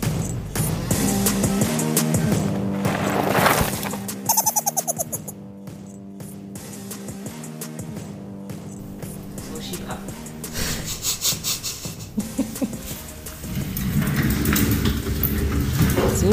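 An office chair rolls across a hard floor as a man pushes himself on it back into his office, its casters producing a continuous gritty rumble and rattle, with a few bumps and uneven surges as it moves along.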